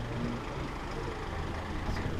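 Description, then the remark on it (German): A police transporter van's engine rumbles steadily as it pulls out of an exit where police are surrounding a sit-in blockade, at 5:41, a low, continuous drone with a brief hiss near the end, heard alone without talking. “Die Polizei umstellt jetzt von einer Seite ähm, die Sitzblockade an der Stelle, wo der Transporter jetzt rausfährt.”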